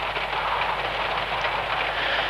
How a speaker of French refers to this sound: Les nuages sont à 30 mètres au-dessus de moi. La pluie est si dense que j'ai l'impression d'être une cloche d'air sous l'océan.